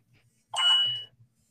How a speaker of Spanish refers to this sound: Perdón si sonó mi celular.